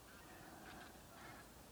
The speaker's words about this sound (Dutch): Terwijl we staan te luisteren naar de koolganzen